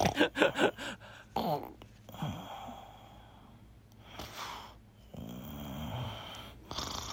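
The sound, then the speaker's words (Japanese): Heavy snoring of a second-year middle-school boy: a quick run of rough, rattling snorts, then long drawn-out rumbling breaths with a faint whistle, separated by brief quiet pauses. “ラジオネーム仮面夫婦の中二の息子のいびきね仮面夫婦でこの中二の息子のいびきを どんどん送ってくるそのあたり気になるわちょっと聞いてみましょう。”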